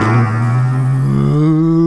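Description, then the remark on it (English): A loud, steady mechanical hum climbs gradually in pitch as the power kicks on in a bunker and the lights dim, a build of power sustained without a break for about two seconds. “At that moment, the lights the lights dim in in the bunker as as, as the power kicks on, and and you hear behind you the kind of like”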